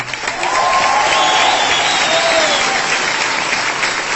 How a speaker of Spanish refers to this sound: Un fuerte aplauso también.